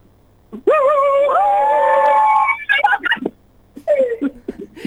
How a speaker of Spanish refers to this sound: Acá un gritito, escucha un gritito, un gritito. Vamos todos, ¿eh?